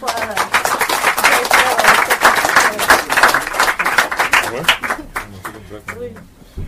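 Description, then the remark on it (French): An audience applauding the speakers after a presentation breaks into steady, dense applause that carries on for several seconds, then thins and fades as a voice begins talking over the last scattered claps. “On peut applaudir euh, les”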